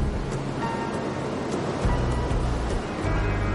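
A continuous roar of surf washing in, with a deep low rumble that swells slightly a couple of times, steady and fairly loud, with no voices.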